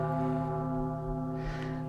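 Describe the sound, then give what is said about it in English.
The St. James Catholic Church bell rings with a rich, sustained metallic hum that holds steady, its layered overtones lingering without any voices. It has tolled since midnight, its clapper striking repeatedly and rhythmically as wind catches a parachute tangled around the bell's tongue. “Yeah, the St. James Catholic Church bell has been tolling since midnight this morning and is still going.”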